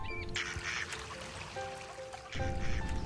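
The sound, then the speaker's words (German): Ducks quack in a busy, overlapping chatter on the Mühlenteich mill pond in Schermbeck on a sunny, warm day, with steady wind rustling through the leaves of trees and shrubs underneath and a louder burst of calls near the end. No one speaks. “Ich höre die Enten schnattern und den Wind durch die Blätter der Bäume und Sträucher rauschen.”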